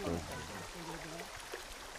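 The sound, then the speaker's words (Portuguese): Water trickles and splashes steadily down a small garden cascade, a continuous hiss of flow, with a voice briefly murmuring over it near the start. “cachoeira, que é uma pequena cascata.”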